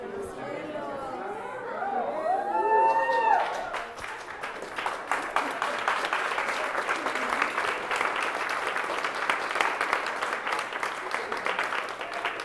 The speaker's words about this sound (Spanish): ¿Por qué no aplauden así con todas sus ganas?